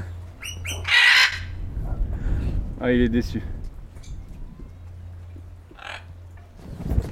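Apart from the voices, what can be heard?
parrot squawking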